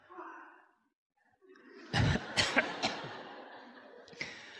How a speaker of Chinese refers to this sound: 哎，咳嗽也没用。